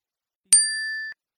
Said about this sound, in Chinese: 张主任的手机发出了短信提醒，他赶紧掏出手机，认真的看了一遍